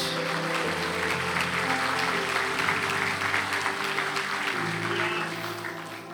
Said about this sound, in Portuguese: Você pode aplaudir Jesus aqui essa noite. Aplauda mais forte.